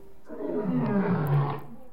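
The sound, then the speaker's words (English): A lion roars once, a deep, rumbling growl that swells and sustains for about a second and a half before cutting off, loud with no other sounds around it. “A lion just climbed out of your mouth!”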